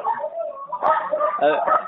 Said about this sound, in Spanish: Ah, es que una vecina creo que llegó y tiene como mil perros. Entonces ese es el sonido que está escuchando.